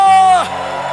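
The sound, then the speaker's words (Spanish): A church audience lets out a loud victory cry, one strong held shout rising above the crowd before falling away, leaving a brief roar of voices behind it. “Da un grito de victoria.”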